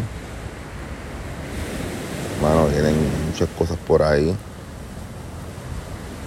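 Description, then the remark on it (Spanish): A steady, broad roar of heavy ocean surf and swell washes continuously beneath light wind that moves the trees, while a man speaks briefly in the middle over the constant rushing sound. “Y realmente no está tan ventoso, pero hay mucho oleaje, un poquito allá hacia el mar adentro.”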